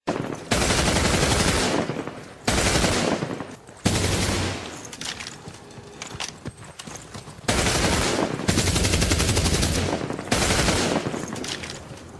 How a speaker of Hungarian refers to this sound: Vérengzésre került sor. AVH-s alakulatok és szovjet tankok géppuskái szálltak vége a tömegen.